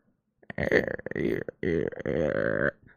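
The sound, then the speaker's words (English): A voice imitates a straining monitor wall mount, made for 27 inches and holding a monitor on a wall, with low, creaky groaning noises in two drawn-out bursts, fairly loud, with no other sounds around it. “and I pushed the computer back or the monitor back, and I realized there's the sound of the wall mount on my wall.”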